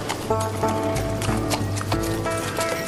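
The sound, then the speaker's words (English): A horse's hooves clip-clop in a steady rhythm, each strike sharp and clear over a continuous low hum, with no voices. “No, you can't have any horse. horses don't eat chocolate.”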